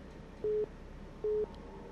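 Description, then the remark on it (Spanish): Two short, identical electronic beeps of a steady mid-pitched phone tone, evenly spaced about a second apart, as a WhatsApp audio call tries to connect, over faint background hiss. “Ay, es que se está conectando el audio de WhatsApp.”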